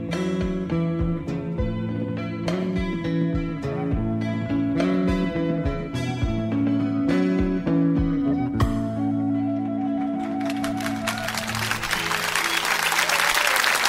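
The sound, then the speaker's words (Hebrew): A Hebrew-language song with melodic instruments plays to its end, then audience applause swells in and grows loud, a dense wash of many hands clapping as the music fades beneath it. “אה, זה מחיאות כפיים, מגיע לו באמת הדרנים גדולים.”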